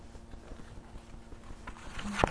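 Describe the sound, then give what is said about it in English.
Papers being shuffled and gathered, soft irregular rustling that builds into sharper crinkles, ending with a crisp tap as the stack is squared up. “Say it out loud because I'm getting my papers together.”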